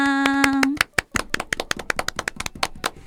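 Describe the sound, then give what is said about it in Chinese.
Quick, uneven hand claps ring out sharp and crisp, at first under a steady held musical tone that cuts off, then continuing alone as a brisk flurry of applause, celebrating the 1927 birth of the first sound film, The Jazz Singer. “一直到一九二七年，第一部有声电影叫做《爵士歌手》诞生了，鼓掌鼓掌！”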